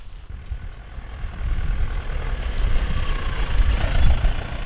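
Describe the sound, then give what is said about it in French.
A tractor engine rumbles low and steady as the tractor slowly climbs a grassy farm path in light rain between wheat and rapeseed fields, growing gradually louder as it draws nearer, with no voices present. “Et là, il y a un tracteur qui monte doucement.”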